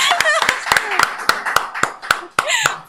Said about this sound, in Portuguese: Aê! Palmas!